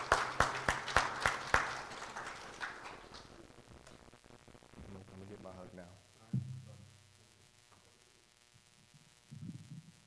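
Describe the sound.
An audience claps in a short burst of sharp, loud strikes that thins out after a couple of seconds, leaving a low hum and faint voices underneath.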